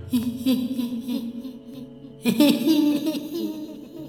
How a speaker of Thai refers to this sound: และในขณะนั้นเอง ผมก็ได้ยินเสียงหัวเราะของผู้หญิงคนหนึ่งดังขึ้น